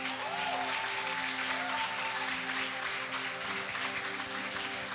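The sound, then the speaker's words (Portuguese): An audience applauds the first-aid volunteers (brigadistas) steadily, a dense wash of many hands clapping at an even loudness for the whole stretch, with a faint tonal hum running underneath. “Enfim, brigadista é muito importante, aplaudam eles também.”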